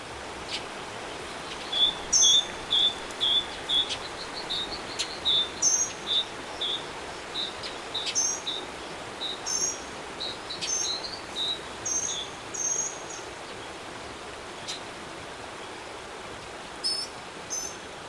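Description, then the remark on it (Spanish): A dawn soundscape in San Carlos Canyon, Chihuahua: crickets trill softly over a steady hiss of ambient noise, with scattered high, quick chirps and twittering calls repeating at irregular intervals. No one speaks. “El primer hablo que tenemos es el Cañón de San Carlos, esto es al amanecer, allí en Chihuahua, San Carlos.”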